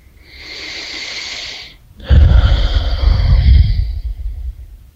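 A single deep breath taken during a guided breathing exercise: a steady airy inhale lasting over a second, a brief pause, then a louder, fuller exhale that trails off. No one speaks.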